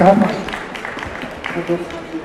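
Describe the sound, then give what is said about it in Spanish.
Audience applause, a steady spatter of clapping lasting a couple of seconds, mixed with voices talking over it at the start. “Bueno, un aplauso, chao.”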